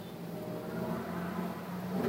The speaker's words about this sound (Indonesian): berisik banget ini truk Ini nih nih mobil-mobil yang kayak gini nih yang harusnya diberantas sama pemerintah itu yang bis-bis kota atau truk-truk yang apa yang asap knalpotnya udah hitam banget itu anjir annoying banget ya gak sih